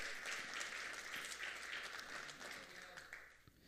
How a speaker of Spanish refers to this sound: Vamos, dale un aplauso fuerte a Dios por eso.